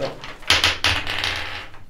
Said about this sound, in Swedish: Du kan slå en tärning för träff här sedan om du lyckas. Det är en D20?